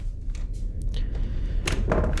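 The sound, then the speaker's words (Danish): A locked door's handle is grabbed and rattled, giving a couple of short metallic clatters and knocks near the end, over a steady low rumble. “nu tager jeg fat i døren her.”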